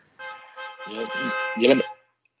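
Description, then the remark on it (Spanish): A car horn blares in one long, steady honk lasting nearly two seconds, with muffled voices or sounds mixed in underneath before it cuts off. “Por favor, que quiten el coche ya de una vez que está el podcast.”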